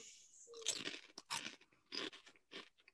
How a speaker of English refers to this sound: This isn't ASMR, bro. Can't just be eating chips on the fucking.